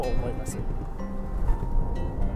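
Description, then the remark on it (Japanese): Steady low rumble of a car driving, heard from inside the cabin, with constant road and engine drone throughout while a man speaks briefly over it. “速度を上げると妙なうなり音がするとかすごくなんかウィー今これ車の走行音入ってると思うんですけどこれぐらいはね全然いいんですけど”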